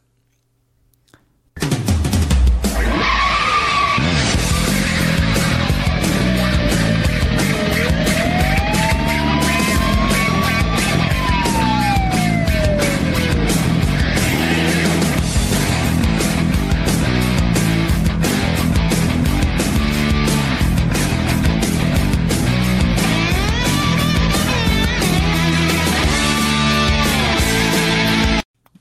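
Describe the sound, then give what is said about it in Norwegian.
Twisted Metal video game soundtrack music plays loud and steady for nearly the whole stretch, with dense layered synth tones, a driving beat and a few sliding pitch sweeps, with no voices over it. “Jeg, jeg, skulle bare sjekke ut litt, jeg skulle finne litt klipp fra Twisted Metal i stad, og det du ramla over, var jo soundtracket.”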